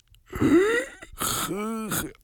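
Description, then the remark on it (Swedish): A voice imitates a woman struggling to breathe during an allergic reaction to hazelnut: strained, moaning gasps with sharp, breathy inhalations, two or three labored pulls of air in close succession, loud. “Nej, då är det min flickvän som inte kan andas.”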